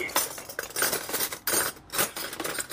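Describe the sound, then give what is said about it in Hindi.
Metal cutlery clinks and scrapes repeatedly against a plate, a busy run of short bright taps and chinks with brief pauses, a knife and fork in use by someone eating at a dining table. “जरूर dining table पे अम्मी या अब्बू बैठ के कुछ खा रहे थे पक्का चोरी छिपे मीठा खा रहे होंगे लेकिन छुरी कांटे से”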